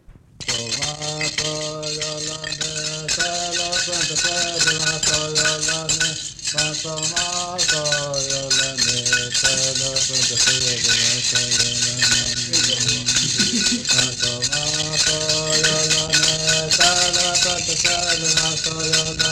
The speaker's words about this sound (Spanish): Oímos una estampa de una danza ritual, cantada, con acompañamiento de sonaja.